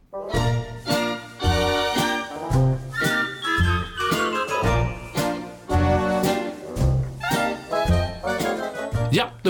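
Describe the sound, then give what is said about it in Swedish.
A bright, bouncy musical jingle with punchy rhythmic chords and a steady beat, playing loudly for about nine seconds without any talking over it. “Efter pausen, eller efter vår jingel”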